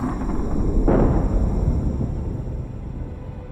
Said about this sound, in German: Es war der Beginn eines der großen Massensterben der Erdgeschichte, bei dem auch die Dinosaurier verschwanden. Auslöser war der Einschlag eines oder mehrerer Meteoriten.